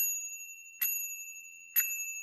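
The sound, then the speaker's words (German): A small rotary bicycle bell, purple and transparent on top, is twisted twice with a finger. Each ring is a short metallic burst at about one-second intervals over a steady high ringing tone, fairly quiet, with no voices. “Da muss man mit dem Finger einfach dran drehen, dann kann man an den Lenker fassen und dann klingelt schon.”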